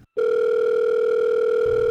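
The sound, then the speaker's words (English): A steady, continuous telephone dial tone starts abruptly after a brief silence and holds at an even, loud level, with no voices over it. “I pick up the phone, I call David.”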